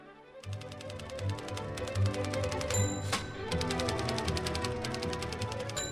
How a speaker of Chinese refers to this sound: 第一件要说的是，十九世纪美国的办公大楼中处处传出打字机的声音。